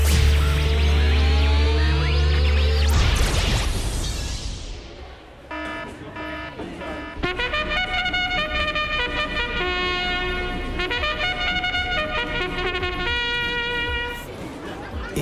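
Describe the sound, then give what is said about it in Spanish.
A loud, swirling time-travel whoosh effect of a magic beetle, with layered tones sliding downward for a few seconds before fading into a busy background of steady, ringing tones and murmur at the La Rinconada racetrack in 1985. “El escarabajo mágico me acaba de dejar en el hipódromo La Rinconada en pleno 1985.”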